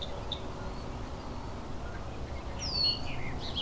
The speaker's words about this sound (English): Oh, bobolink is back, right behind me.